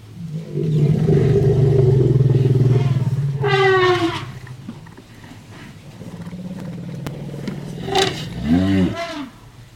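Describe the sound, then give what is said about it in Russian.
An elephant gives a deep, loud rumble for several seconds, breaking into a brief high trumpet, then quieter rumbling and a second, shorter trumpeting call near the end. “Сейчас вы услышите звуки самого крупного наземного млекопитающего. Вы, конечно, поняли, что речь идет про слона.”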